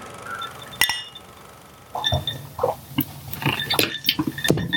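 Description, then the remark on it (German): A single bright clink of glasses rings out during a toast with drinks, followed after a pause by scattered softer clinks, rattles and crunchy clicks. No one speaks. “das ist schon okay, ich klirre.”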